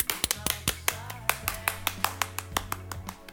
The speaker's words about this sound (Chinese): 那嗯，祝夸夸这个栏目一周岁生日快！夸夸一周岁，来， 鼓掌鼓掌鼓掌。